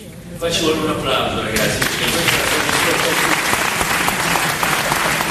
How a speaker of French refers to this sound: Là, je crois qu'il faut applaudir les enfants.